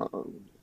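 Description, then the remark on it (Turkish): A single quick sneeze: a short sharp intake burst, a brief pause, then a breathy explosive release that fades over about half a second, moderately loud. “çok yaşa.”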